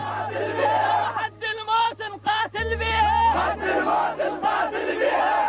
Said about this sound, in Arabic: هتاف الجنود العراقيين بحضور صدام حسين